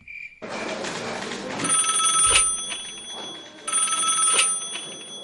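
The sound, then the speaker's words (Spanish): A telephone rings in two bursts, each a bright, sustained electronic trill with a steady high tone, separated by a brief pause, with a short beep at the very start; presented on the radio show La Luciérnaga as the call between presidents Duque and Biden. “y en exclusiva de La Luciérnaga tenemos el momento de la llamada entre los presidentes Duque y Biden.”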